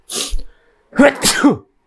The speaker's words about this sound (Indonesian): Alhamdulillah, Alhamdulillah. akhirnya bersin juga guys Sorry ya guys. Ah, tadi ada suara teroris. Ah. Saya menahan bersin dari tadi dan alhamdulillah bisa keluar lega banget kepala.